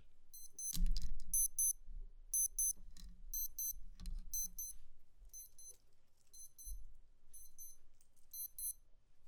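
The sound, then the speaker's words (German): A cardio watch alarm set for 9 o'clock beeps in quick high-pitched double pulses, repeating steadily throughout, fairly faint, with a few low thumps and rustles underneath and no talking. “Meine Cardio-Uhr, die piept. Die habe ich immer den Wecker noch auf 9 Uhr.”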